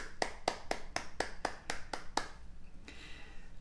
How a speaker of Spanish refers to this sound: Un aplauso, otro aplauso para ustedes. Qué bueno.